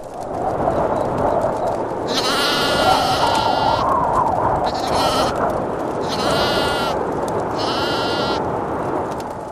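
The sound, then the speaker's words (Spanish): Sheep bleat repeatedly, about four wavering, nasal cries of varying length, some overlapping, rising over a steady, noisy rustle with no talking. “Y mientras, en los campos de Belén, unos humildes pastores que pasaban la noche al raso cuidando de sus rebaños”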